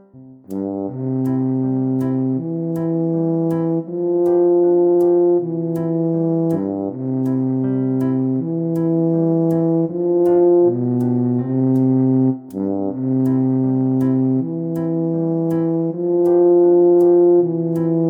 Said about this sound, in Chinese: 哇，它的声音听起来低低的、粗粗的。就像一个大胖子在走路一样，啊，我知道了，他的名字叫做大号，请问您可以为我们演奏一段吗？